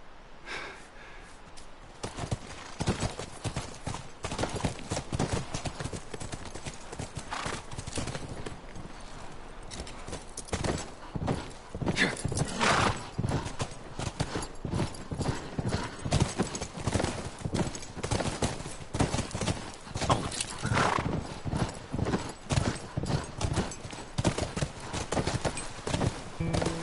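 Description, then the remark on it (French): Horses clip-clop steadily for the whole stretch, a dense, continuous run of hoofbeats at a brisk, uneven rhythm, with no talking. “Bien, on file aux chevaux.”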